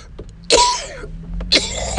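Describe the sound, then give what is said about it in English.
Two harsh, loud coughs about a second apart from someone who has just taken a deep hit, each a sudden raspy burst that trails off, with faint background noise between them and no talking. “You don't get off till you cough.”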